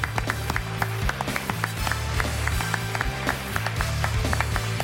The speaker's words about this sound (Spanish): Un aplauso.